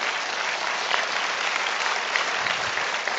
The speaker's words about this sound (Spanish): Un aplauso para mi hermano diamante